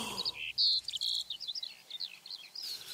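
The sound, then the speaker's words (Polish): Outdoor meadow ambience with several birds chirping and trilling in quick, overlapping phrases, over a soft background hiss with no voices. “Sama, biedna mucha na polanie? Tylko trawa, krzaki.”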